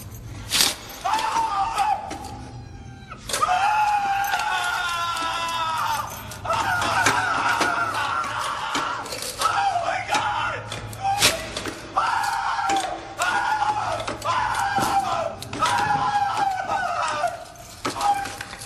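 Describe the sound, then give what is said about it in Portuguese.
A sound effect from a scene: a man screams in long, strained, wavering bursts while a saw grinds past, with sharp clanks punctuating the loud, chaotic scene. “o efeito que eles colocam, eles colocam o cara gritando e colocam a serra passando assim.”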